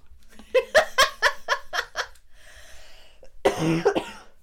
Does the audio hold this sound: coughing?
yes